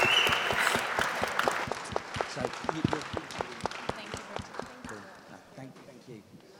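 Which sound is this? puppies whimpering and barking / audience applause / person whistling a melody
audience applause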